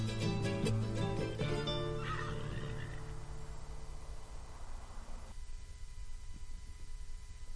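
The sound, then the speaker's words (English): A mare, newly tamed by gauchos, lets out one loud whinny with a shaky, falling pitch, then it trails off into steady outdoor background noise for the rest of the moment. “In just three hours, this mare has gone from wild to tame as she begins a new life with the gauchos.”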